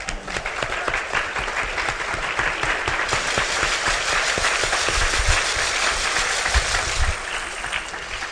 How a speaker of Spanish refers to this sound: Nuevamente un fuerte aplauso para ellos.